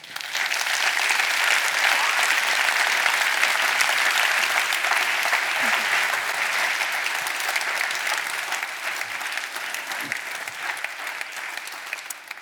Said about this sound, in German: Jetzt aber Bühne frei und einen riesengroßen Applaus für Eva Menasse.